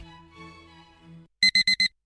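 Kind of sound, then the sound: household object, alarm clock ringing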